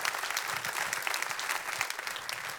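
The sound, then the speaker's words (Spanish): An audience claps steadily in applause to God during a church service, a dense, continuous wash of applause, many hands overlapping with no pauses, holding a fairly even loudness throughout. “Le puedo dar un fuerte aplauso a Dios por eso.”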